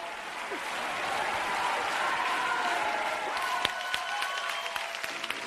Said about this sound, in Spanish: En este audio habéis podido escuchar cómo los fans del festival presentes en la sala gritaban el nombre de …